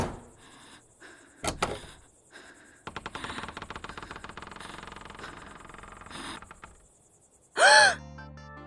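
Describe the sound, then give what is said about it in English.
A door creaks open slowly in a long, rattling groan with a few knocks before it, then a sudden loud gasping cry near the end. “welcoming you once again through the creaking door to Bent and Twisted”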